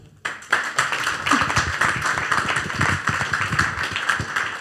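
A burst of live audience applause: many hands clapping at once in a dense, steady patter that starts abruptly and holds at an even loudness throughout, with no voices.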